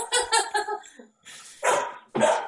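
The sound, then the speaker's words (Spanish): A puppy barks: a quick run of three high, squeaky yips, a brief pause, then two louder, sharper barks, with no voices present. “La cría también está ladrando ya.”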